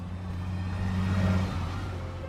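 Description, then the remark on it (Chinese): A bus pulling away from a stop, its engine giving a deep, steady rumble that swells a little midway through before easing back. No voices are heard. “车辆起步，请扶稳坐好。”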